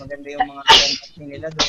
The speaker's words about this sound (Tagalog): Bless you.